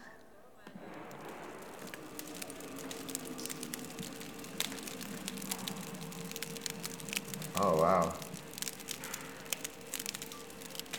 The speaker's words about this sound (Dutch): Ja, het is een soort knisperend haardvuurtje. Die broodjes die liggen vrolijk na te knetteren als ze uit de ja. oven komen.